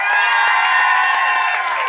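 A group of people cheers and shouts loudly, with scattered clapping mixed into a sustained, lively roar of excited voices close by.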